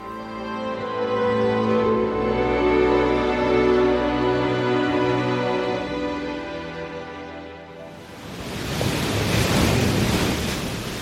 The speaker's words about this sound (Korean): 어둑한 공간에 파도 소리만 차르르 밀려왔다 쓸려갔다.